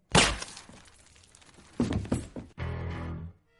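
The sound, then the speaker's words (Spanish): A loud, sharp gunshot cracks out up close and rings away, followed by a second burst of harsh impacts, then a steady humming tone takes over before it cuts off. “Ahora lo del disparo, te podrías haber buscado un corte mejor.”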